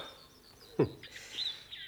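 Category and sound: bird, birds chirping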